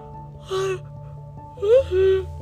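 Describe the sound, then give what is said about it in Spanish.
A drawn-out yawn in two parts: a short breathy, voiced start, then a longer, louder stretch with a rising, groaning pitch before it trails off, with no speech. “Es un bostezo, espero no habérselos pegado.”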